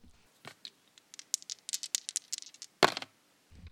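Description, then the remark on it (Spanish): Dice rolled on the program El Dado rattle and clatter in a quick burst of small, bright clicks, with one sharper knock near the end, then a soft thud. No one speaks. “Lancemos los dados y cayeron en la casilla de”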